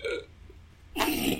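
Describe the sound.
A close, fairly loud hiccup bursts out once, sharp and throaty, with a brief laugh and a short spoken word nearby.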